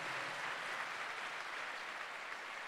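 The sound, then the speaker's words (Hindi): A large audience claps loudly to glorify God, a dense, steady wash of applause without pause from start to finish, with no voices rising above it. “कितने लोग आशीष देते एक जोरदार ताली बजा के केवल परमेश्वर की महिमा करें”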